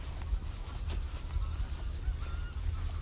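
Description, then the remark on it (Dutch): Geese honk in a series of short calls over a steady low outdoor rumble, from a goose family with eight goslings, with no one speaking. “Of zoals ik net, familie Gans met acht kleintjes.”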